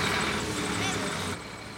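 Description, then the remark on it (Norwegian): A bus carrying seatbelted children starts to drive, its engine rumbling loudly in a dense, steady roar that eases down slightly just before the end. “Bussen starter å kjøre”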